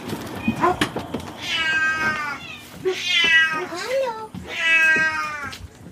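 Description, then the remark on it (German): Several cats meow loudly and insistently in the sick ward of an animal shelter, three long drawn-out wailing calls with a few shorter mews in between and some faint background clatter. “Ja, hier wird jetzt endlich auch mal gemaunzt. Hier wird aber schwer gemaunzt.”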